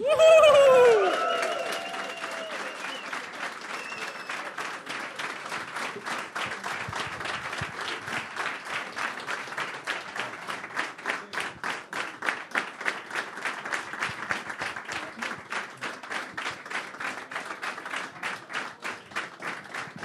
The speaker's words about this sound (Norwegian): Det er den lengste applausen jeg har hørt på 100 år.